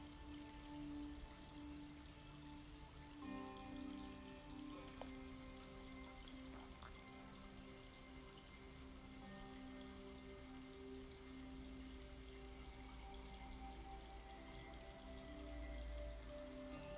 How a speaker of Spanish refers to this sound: Y ahora, sentada sobre la tierra, cierras tus ojos para simplemente escuchar el agua del río y de la cascada.